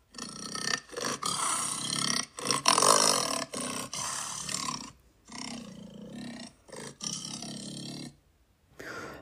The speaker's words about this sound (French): Quel bruit fait la panthère? Un léopard de l'amour, ça ressemble à ça.